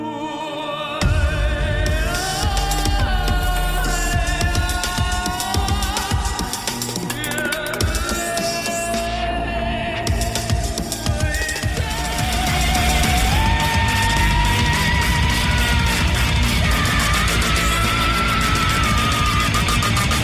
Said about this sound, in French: Donc l'album a, vraiment quelque chose de particulier. Enfin, vous avez pu entendre euh, ce mélange. C'est vraiment un mélange entre baroque, métal et électronique, et ainsi que d'autres genres musicaux.